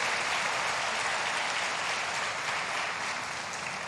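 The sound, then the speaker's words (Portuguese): Sustained applause from a crowd, given as a round of applause for Jesus, dense steady clapping filling the whole stretch at an even loudness, tapering slightly toward the end, with no voices standing out. “Jesus merece uma salva de palmas agora.”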